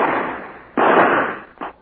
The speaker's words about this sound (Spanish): Fueron disparos al aire. Quería saber si mi pistola anda bien.